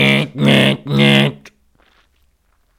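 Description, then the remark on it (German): A voice loudly shouts into a microphone an imitation of a ringing alarm clock: three strong, harsh, sustained bursts in quick succession, then near silence with a few faint rustles. “Wobei ich keinen Wecker habe, der so macht.”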